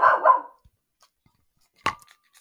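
A dog barks twice: a longer, rougher bark at the start, then after a short silence a single sharp, loud bark. No one speaks.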